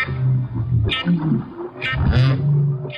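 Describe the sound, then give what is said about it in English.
Humpback whale song: long, low moaning tones that rise and fall, broken by brief higher squeals and whoops, echoing steadily throughout with no one talking. “They were humpback whales the hmm.”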